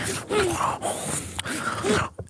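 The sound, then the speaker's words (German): A voice imitates the moaning heard in the audio of a car scene, drawing out breathy, wavering groans with rising and falling pitch for about two seconds, fairly loud, ending in a short breathy pause. “ich, ich habe kurz gedacht, du hast einen Roton ton eingespielt.”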